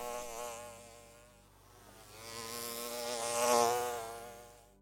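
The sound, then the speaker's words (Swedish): A large dor beetle or hornet flies past at dusk over a meadow, its deep, angry buzz droning steadily with no voices, dipping briefly then swelling louder toward the end as it passes. “Att en stor torrdyvel eller en bålgeting kom flygande förbi dem i skymningen på ängen och lät höra ett ilsket surrande.”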